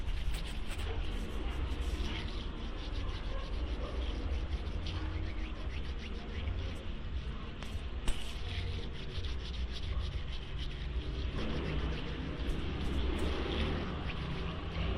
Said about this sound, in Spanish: Tomaremos la mezcla y la pondremos en nuestras manos. Frotaremos alrededor de dos minutos con movimientos suaves ya que pues no queremos lastimar nuestra piel.